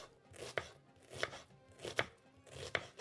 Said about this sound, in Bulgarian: Чудесна е за през лятото, много лека и вкусна и започва с зеленчука, който както и да го режа, каквото и да го правя, накрая все съм просълзена. Нарязвам го на полумесеци